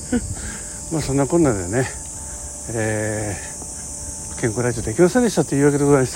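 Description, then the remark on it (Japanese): A steady, high-pitched drone of insects chirping outdoors, much like crickets, runs continuously in the background while a man talks and laughs in the foreground, recorded during a workplace inspection round of river-management facilities such as water gates and pump stations. “そして皆さん今ちょっと気になってると思うんですよね、まあ、周りいろんな音が聞こえるでしょ虫の声みたいなね”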